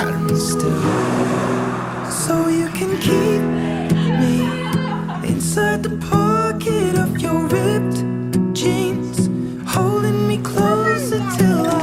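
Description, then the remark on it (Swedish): A gentle acoustic pop song from 2015 with a male lead vocal singing over steady strummed guitar and soft accompaniment, mid-tempo and warm, playing continuously at a moderate level. “då kan vi ta och lyssna på hans … från 2015. Den låter så här.”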